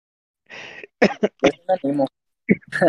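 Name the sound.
coughing fit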